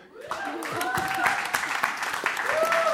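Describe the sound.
An audience claps steadily for about three seconds, a dense, continuous patter of many hands, with scattered voices and whoops rising over the applause.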